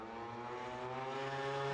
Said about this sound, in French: Loin peut-être du, Mont Blanc, mais euh, on a beaucoup de trafic dans la vallée, ouais. Ah Modène, hein, ça se voit d'ailleurs. Hein. Il y a encore l'autoroute, mais euh, mais il y a quand même du monde, ouais.